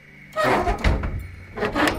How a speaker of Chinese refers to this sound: 有一间点着灯笼的小糖果店，准备要关门了。就在老板把窗户关上的时候，